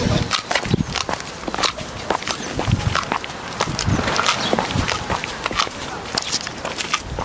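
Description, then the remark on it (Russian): Many overlapping footsteps as participants of the All-Russian educational rehabilitation forum "Crimean Autumn-2017" walk to morning exercises on the seashore, a steady irregular patter of crisp steps, with faint murmuring voices in the background. “А вот так наши форумчане идут на утреннюю зарядку.”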